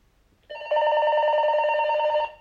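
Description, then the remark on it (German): Two cordless telephone handsets ring together in a steady electronic trill after a key is pressed on a handset, one starting a moment before the other joins and makes it louder. The ringing is continuous and without any talk. “Achso, es klingeln dann doch beide.”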